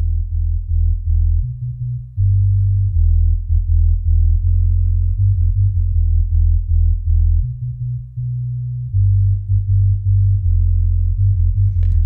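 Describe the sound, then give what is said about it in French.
A deep, solo dub bass line plays a new repeating motif of sustained low notes with heavy reverb and brief gaps between phrases, loud and steady with no other instruments or voices. “Je vais mettre que la basse, vous allez voir.”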